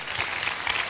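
A dense, steady patter of hand clapping from many people at a church evangelism service, sustained at an even loudness for about a second with no voices standing out.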